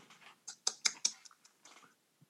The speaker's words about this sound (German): Ah, der hat sein Mikro nicht leise gestellt. Ups. Ich dachte, Tomaten hört man nicht. Auch wenn man sie laut kaut schon.